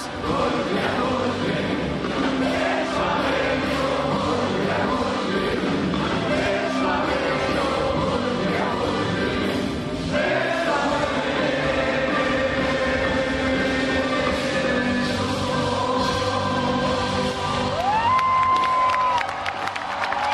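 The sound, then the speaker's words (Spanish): A large concert audience cheers and shouts in a steady, dense, loud roar that holds for the whole stretch, calling out requests and urging the performer not to leave the stage, with scattered whistles rising out of the din near the end. “todas coreadas al unísono por el público que también le pedía a gritos algunas complacencias, pero sobre todo que no abandonara los escenarios.”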